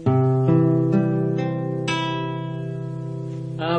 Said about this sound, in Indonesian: kita langsung menuju kepada mengenal kunci dasar dalam permain gitar ya Oke kita mulai dari kunci C Mencicil itu um, jari telunjuk di senar 2 kolom 1 kemudian jari tengah di senar 4 kolom 2 dan jari manis di senar 5 kolom 3 ya suaranya seperti ini